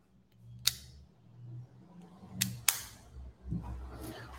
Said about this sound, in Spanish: Con eso dicho, me saco estos audífonos porque como estoy solo,